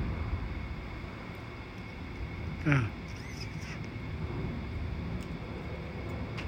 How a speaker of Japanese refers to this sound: 飛行機がうるさいですよね。これ、嫌になっちゃうね。これ、飛行機。アメリカの飛行機、ジェット機が朝から飛ぶんですよね、ここは。ほら1機が飛ぶとまた2機と3機飛ぶあすんうるさいですよね